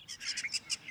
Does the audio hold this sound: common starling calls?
yes